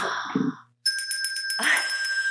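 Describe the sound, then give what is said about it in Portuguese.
A bright bell rings out after a brief pause, its clear tone sustained and lightly pulsing for over a second. Noisy, voice-like sounds come before it and rise again beneath the ringing. “Helena, eu vou tocar o sino de antemão porque eu vou entrar num tema delicado”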